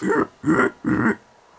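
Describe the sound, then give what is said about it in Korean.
Three loud squeals in a steady rhythm, each about a quarter second long, a human voice imitating pigs, followed by a brief quiet moment. “끔찍한 저녁을 먹고 나서 아이들이 꽥꽥거렸습니다.”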